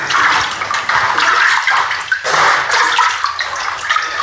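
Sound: water sloshing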